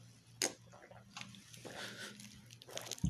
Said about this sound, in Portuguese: Vamos dar nosso brinde de carnaval. Vamos. Yeah o golinho passou pra molhar.